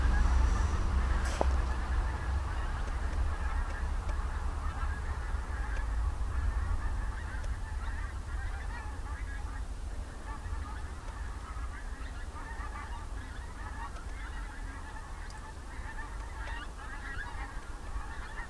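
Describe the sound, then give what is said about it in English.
A flock of geese honks continuously as they fly in to roost against the wind at night under a full moon, with fast-moving clouds. Many overlapping calls rise and fall over a steady low rumble of background noise, with no talking. “I love listening to the geese coming in to roost.”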